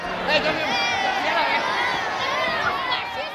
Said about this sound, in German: Alles ist laut und da geht's zu und auf dem Marktplatz. Wie geht's zu auf dem Marktplatz?